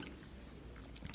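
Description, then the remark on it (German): A dog gnaws on a marrow bone on a towel, faint scraping and grinding, then one sharp crunch near the end. No one speaks. “das ist unser Hund.”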